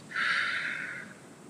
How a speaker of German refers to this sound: Das ist ganz alt bewährt, bei Schmerzen auch. Atmen, tief über die Nase einatmen und ausatmen.